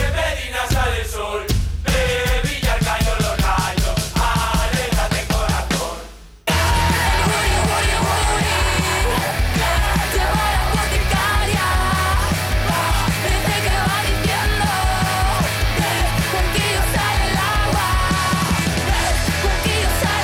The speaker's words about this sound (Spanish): así suena el guriguri. Guri. Es una pasada.